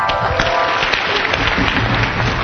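An audience claps continuously, a dense, steady wash of many hands at even loudness for the whole stretch, with no voices standing out over it.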